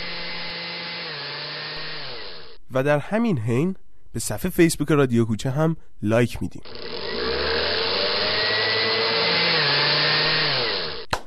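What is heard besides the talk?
blender running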